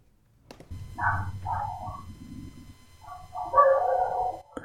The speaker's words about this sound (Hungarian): Szeretném nektek bemutatni a felvételve behallatszódó kutyusokat, autókat, kőműves talicskát, mert egy pár hónapja, egy hónapja, hogy biztos folyik egy felújítás a szomszédban, lehet, hogy behallatszik. A kutyák mindig behallatszanak.